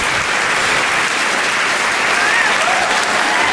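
A recorded burst of crowd applause plays as a jingle, a dense, steady roar of many hands clapping at constant loudness throughout, with a couple of faint whistles rising briefly above it.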